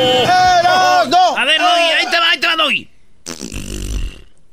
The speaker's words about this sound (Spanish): ¿Y eso qué, bro? ¿Qué sonido fue ese? Es un fart. Ese fue un fart. te aventaste un pedito